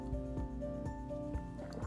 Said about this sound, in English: I had to take a break to drink water, guys. My my throat is like very dry for some reason.